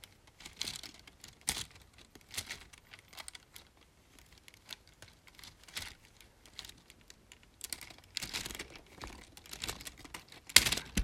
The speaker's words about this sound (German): Sieht so aus, als würde man hören. Das war jetzt eine Hedwig, bei der man die Flügel be äh, bewegen konnte.